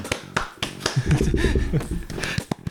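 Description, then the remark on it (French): A small group claps in brief, uneven applause at the close of a programme, sharp hand claps scattered over a couple of seconds, with some faint vocal sounds murmuring underneath in the middle. “On peut les applaudir”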